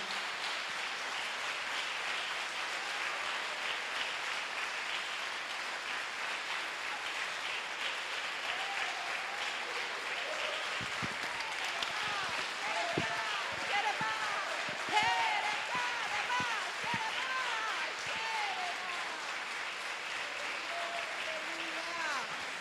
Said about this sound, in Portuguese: Querido, você tem duas mãos. Então vamos usar essas mãos abençoadas, ungidas que Deus deu, para aplaudir Ele com toda a alegria do teu coração nesta manhã.